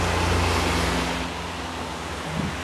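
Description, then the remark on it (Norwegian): Black police SUVs of the Norwegian Delta emergency unit drive a round through a campsite and leave, engines humming low and steady amid broad rushing noise, fading gradually as they move off. No voices, just the motor drone and a wash of outdoor background. “De kom i sine sorte suver inn på campingen en runde der og dro igjen.”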